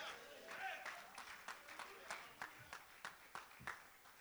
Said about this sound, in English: oh, God, somebody give him a hand clap of praise.